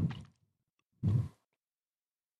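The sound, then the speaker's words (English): Two loud, moist chewing bursts with squishy mouth noises as someone eats a treat with blueberry bits and chocolate ganache, separated by about a second of silence, with no talking. “Those chewing sounds are very loud.”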